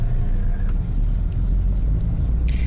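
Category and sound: vehicle, car driving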